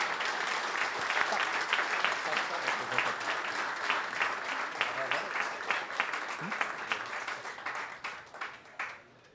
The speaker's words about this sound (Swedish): Eh, vi ger väl honom en stor applåd tycker jag. Tusen tack.